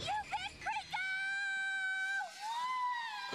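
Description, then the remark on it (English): A single voice lets out a Tarzan-style jungle yell: a few quick warbling yodels, then a long, loud, sustained high note that slides into a final rising cry, heard alone. “…'s practicing her jungle yell.”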